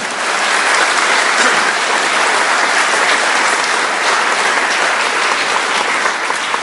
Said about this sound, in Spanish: Dele un aplauso fuerte al Espíritu Santo.